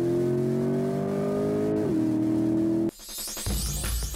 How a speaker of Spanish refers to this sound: tiene pesadito el pie, pues lo aceleró hasta las 6.000 revoluciones por minuto